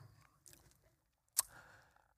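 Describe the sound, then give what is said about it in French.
Soft mouth noises of someone sipping water, a faint slurp followed by one sharp wet click of a swallow, then a brief quiet exhale. No talking. “Je vais prendre une gorgée d'eau.”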